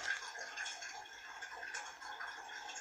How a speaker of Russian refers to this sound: Придется переливать из ковчиков. Вот такая струйка идет пока пусть ковшик набирается.